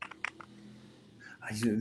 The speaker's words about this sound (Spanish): es como que alguien estuviera escribiendo, ¿no? ¿Qué? Pero, pero de esos teclados antiguos que tenían resortito que escucha así, como quién sabe.